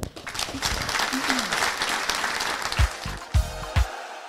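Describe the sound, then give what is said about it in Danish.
An audience breaks into steady, dense applause for the project head of FC København's women's team, fading over a few seconds, followed by a handful of dull low thumps as the clapping dies away. “Jeg håber, I vil øh, give hende et stort bifald.”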